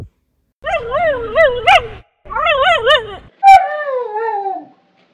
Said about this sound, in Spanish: El chico se sentó en un banco al lado de su mamá y fue ahí que vio a una persona bajita, pero un poco alta, que le estaba pegando a un perro con una rama.